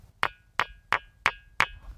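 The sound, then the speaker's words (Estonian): Five sharp, evenly spaced knocks on a ringing stone, each strike giving off a bright, metallic ring, sounding as if the stone were hollow or like striking a railway rail, hanging briefly before the next, with no voices present. “ja kivi, eh, helisev kivi sellepärast, et kui sa siia pihta koputad, siis ta jätab või oma kõlalt sellise mulje, nagu oleks eest tühi või nagu vastu raudteereltsi lööd.”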